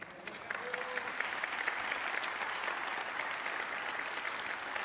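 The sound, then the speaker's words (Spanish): An audience claps steadily for several seconds to give glory to the Lord, a dense, even patter of many hands with no pauses, fairly quiet overall with faint murmuring mixed in. “Me tocó sacarles un aplauso, pero como si les estuviera sacando una muela.”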